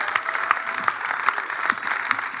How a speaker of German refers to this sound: Und vielleicht können wir dem Team mal einen riesen Applaus geben, die es auf die Beine gestellt haben.